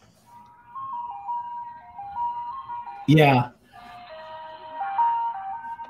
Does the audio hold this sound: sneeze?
no